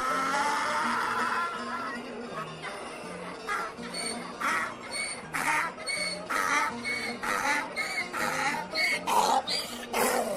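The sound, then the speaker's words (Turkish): The Hoca's donkey brays at length as the Hoca starts calling out that he has pickles to sell, a loud, rasping series of rhythmic heaving bursts that alternate in pitch and keep going for several seconds, with no talking. “Biraz gittikten sonra yeniden Turşularım var, leziz enfes turşularım var diye bağırmaya yeltenmiş tam ağzını açacakmış ki daha ilk hecesinde eşek yine uzun uzun anırmış.”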